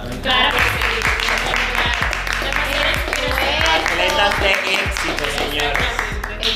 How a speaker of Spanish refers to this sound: Sobre eso un aplauso